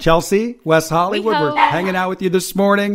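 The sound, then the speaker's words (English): A speaker's own dog at home barks several times in short bursts behind a person talking, the barks mixed into the speech at moderate loudness. “Did I hear a dog? That's my dog.”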